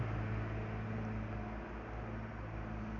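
A heavy truck engine rumbles close by, a deep steady drone with a low throbbing hum that stays fairly loud throughout. No voices are heard.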